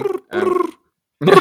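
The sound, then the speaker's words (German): A voice imitates the cooing of pigeons, the same melody pigeons sing across Germany on summer mornings, with three low, throaty, rolling bursts separated by short pauses, fairly loud. “Tauben haben immer die gleiche Melodie drauf.”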